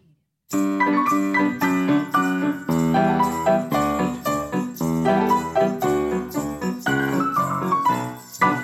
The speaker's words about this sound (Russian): Звон бубенцов.